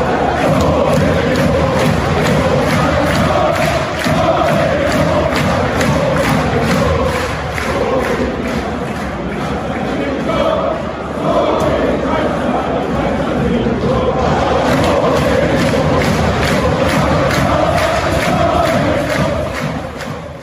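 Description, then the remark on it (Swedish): A football stadium crowd at Bochum's home Bundesliga match against Mainz roars steadily, a dense wash of many voices singing and shouting together, loud and sustained throughout with only a brief dip midway before surging back. “Men en annan match som jag tyckte stod ut och där var det mest stämningen.”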